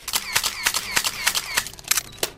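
Rapid camera shutter clicks fire in a quick, irregular burst, about a dozen sharp mechanical snaps in two and a half seconds, crisp and bright with no voices.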